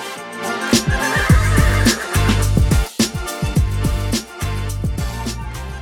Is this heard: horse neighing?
yes